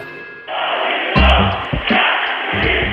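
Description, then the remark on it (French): A dense, roaring crowd of protesters shouts together, loud, with heavy thumping bursts breaking through the constant wall of voices; among them a young protester of about 25 carries an Egyptian flag and shouts with the crowd. “Un jeune manifestant, environ 25 ans, arbore un drapeau égyptien et crie avec la foule”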